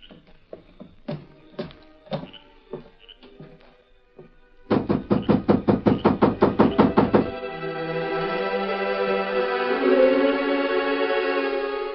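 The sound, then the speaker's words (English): A few scattered footfalls on the porch give way to a rapid, steady run of about a dozen loud knocks on the wooden door of the Lazy M ranch house late at night, followed by swelling sustained music with no voices. “Inside, when Miller heard the knocks.”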